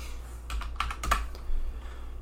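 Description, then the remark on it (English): Quick bursts of computer keyboard typing, several sharp key clicks in an irregular cluster, over a low steady hum, with no voices. “Sorry, I'm um, sorry for the typing”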